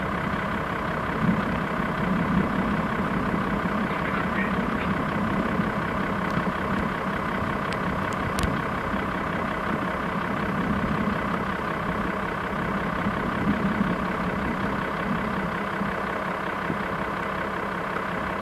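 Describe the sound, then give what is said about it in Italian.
An off-road car engine drones steadily as the car climbs a desert slope, a low, continuous rumble holding a fairly even pitch and loudness throughout, with no voices. “Seguiamo con lo sguardo la macchina che sta passando prima di noi per cogliere eventuali segnali di terreno difficile, fino a quando...”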